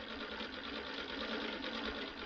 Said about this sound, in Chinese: 缝纫机越踩越快，谁说姑娘不是在专心缝补？